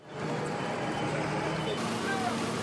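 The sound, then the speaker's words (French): A tractor's engine rumbles steadily as it maneuvers before the burning gates of the prefecture in Agen, France, amid piled tires, hay and soil, then sprays liquid manure over the facade; a low droning hum under broad outdoor noise, with faint crowd babble in the background. “Pneus, foin, terre s'entassent devant les grilles de la préfecture d'Agen en feu un tracteur manœuvre”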